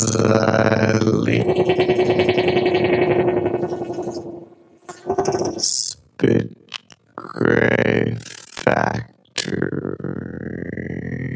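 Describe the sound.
A voice sample saying "As I leave the factory" is chopped into tiny grains and smeared into a dense, buzzing texture, with a sustained droning tone, then stuttering, fragmented bursts of processed vocal sound with abrupt gaps.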